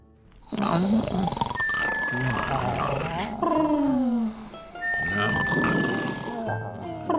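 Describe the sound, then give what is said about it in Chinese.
Several people who all drank too much at a feast snore at once late at night, loud rasping and rumbling breaths overlapping continuously so that one snore rises as another fades. Some snorts are deep and throaty, others higher and whistling. “四周的呼噜声此起彼伏，所有的人都喝多了。”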